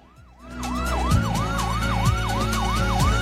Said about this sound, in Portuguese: Imagens mostram uma ambulância chegando no local do crime.